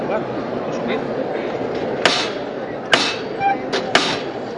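A metal knocker strikes the float (paso) of the Cristo de la Misericordia four times, the last two in quick succession, sharp against a steady murmur of crowd chatter, calling for the paso to be lifted during a procession in a square surrounded by people.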